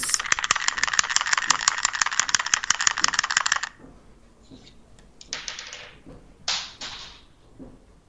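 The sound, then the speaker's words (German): A single die rattles rapidly and loudly for a few seconds, as if shaken in a cup, then goes quiet before a few short clattering bursts as it drops, falls off and tumbles on a hard surface, landing on a 1. “Jetzt ist der Würfel runtergefallen.”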